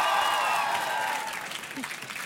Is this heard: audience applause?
yes